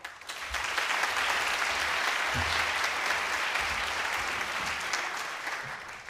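A crowd bursts into loud, sustained applause for a guitarist, a dense wash of clapping that stays steady and full for the whole stretch, with no voices rising above it.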